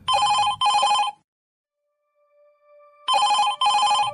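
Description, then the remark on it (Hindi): A telephone rings loudly in two double-ring bursts, separated by a quiet pause with only a faint tone, and no voices. “उमा त्रिलोक की पुस्तक Amrita Imroz a love story में उमा जी लिखती हैं 31 अक्टूबर 2005 को इमरोज़ का फ़ोन आया”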